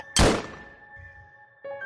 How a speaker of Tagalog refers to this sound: Hindi pa man ako nakakalayo nakarinig na ako ng malakas na putok ng baril.